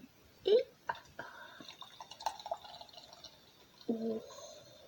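Beer poured into a glass, with short gurgling glugs and drips of liquid, uneven bursts over a few seconds and a final fuller splash; faint vocal sounds drift in between.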